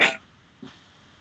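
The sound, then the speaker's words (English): A single sharp sneeze bursts out at the start, followed a moment later by a faint, brief breathy sound, then quiet. “bless you.”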